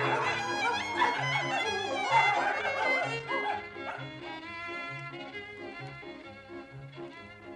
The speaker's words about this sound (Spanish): A lo lejos por los cerros ladran juntos veinte perros